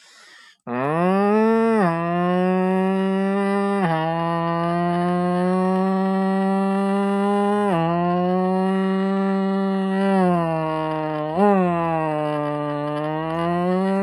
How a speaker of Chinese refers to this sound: 所以说，很多人可能不大清楚这个车在高速运转的时候，跑赛道的时候是是是是一个什么声音啊？大概就是，